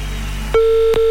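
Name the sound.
telephone ringback tone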